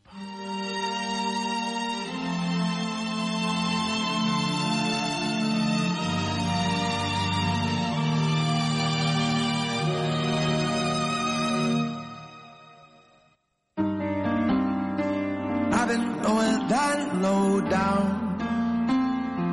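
A pop song plays loud and full, a male voice singing over a steady, warm backing; the music drops out abruptly for a split second near the end, then picks back up.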